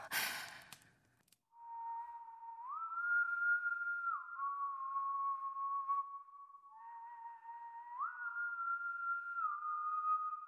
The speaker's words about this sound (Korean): 간밤에 제가 줄리아의 비참한 운명을 생각하며 잠을 못 이루고 있을 때였어요. 갑자기 한밤에 침묵을 뚫고서 줄리아의 죽음을 예고한 바로 그 낮은 휘파람 소리가 들려왔어요.